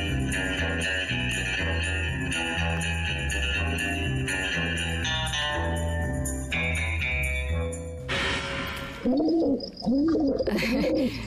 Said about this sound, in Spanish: escuchamos a una paloma, ¿están de acuerdo? Es un ave